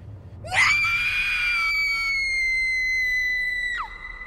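A woman lets out a single long, high-pitched scream that starts abruptly, holds steady for about three seconds, then drops off sharply. It is loud and close, with no talking.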